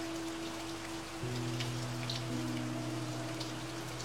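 Light rain patters steadily against a window, a soft continuous wash of drops with a faint low hum running underneath and no voices.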